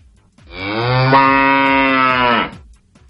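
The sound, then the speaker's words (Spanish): A single long, loud cow moo, rising slightly in pitch and lasting about two seconds before cutting off, with no talking. “Pues a ti de qué te voy a disfrazar. de vaca, por supuesto.”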